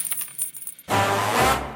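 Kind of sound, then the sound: sound effect, coin dropping and clinking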